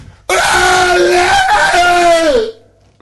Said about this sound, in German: und dann gut aus der Schulter rausstoßen und dabei vor allem auch unheimlich schreien und grunzen.